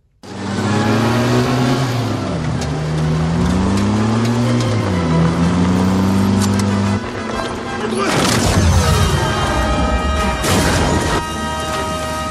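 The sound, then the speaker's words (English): Motorcycle engines rev loudly with swooping, rising and falling pitch for several seconds in the Nazi motorcycle chase of the film Indiana Jones and the Last Crusade, then a sudden loud crash bursts in, followed by clattering and continued engine noise. “And I was thinking about in the third Indiana Jones, The Last Crusade, you have Harrison Ford and Sean Connery, and they're being chased by Nazis in this motorcycle chase, and he's got this pole”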